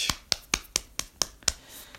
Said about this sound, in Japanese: 拍手